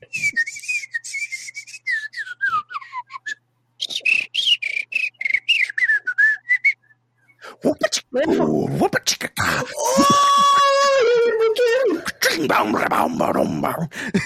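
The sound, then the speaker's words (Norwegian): A clear whistled melody from the Disney film The Jungle Book plays in two phrases with sliding, falling notes and a short pause between them, followed by loud, animated vocalizing from people. “Oh, selvfølgelig Jungelboken!”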